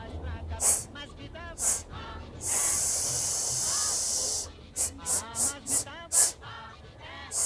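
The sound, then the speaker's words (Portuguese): A voice demonstrates the S sound that the letter C makes before I and E: a long, steady hissing "sss" lasting about two seconds, framed by several short, sharp sibilant bursts mixed with brief voiced sounds. “A letra C, quando vem seguida do I e do E, tem som de S.”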